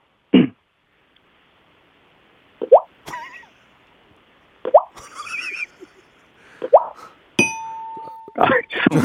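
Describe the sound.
A voice imitates falling raindrops with a series of about eight sparse, wet mouth plops at irregular intervals, fairly loud, with a brief ringing tone near the end.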